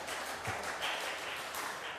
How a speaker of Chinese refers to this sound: 啊，我们也给敬拜团热烈的掌声，他们今天带很好的敬拜哈。